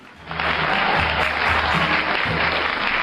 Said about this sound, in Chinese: 让我们掌声有请两位小选手闪亮登场。